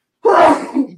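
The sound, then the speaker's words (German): A single loud sneeze bursts out suddenly, sharp and breathy at the start, then trails off into a softer, voiced exhale. “ja, Gesundheit.”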